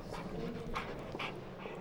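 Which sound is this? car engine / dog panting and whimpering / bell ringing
dog panting and whimpering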